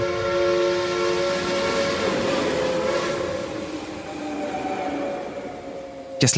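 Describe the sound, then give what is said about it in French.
A steam train rumbles along steadily while its horn sounds a long, sustained chord over the clatter, loud, with a sharp click right at the end. “Le chemin de fer Pékin-Hangzhou sonne le glas du canal comme artère majeure de transport en Chine.”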